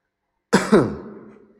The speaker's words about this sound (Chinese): 我清了清嗓子